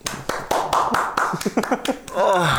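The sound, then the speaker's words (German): Quick, steady hand clapping, about a dozen sharp claps in an even rhythm, with voices talking and laughing over them throughout. “Komm, man sich dafür einen Applaus.”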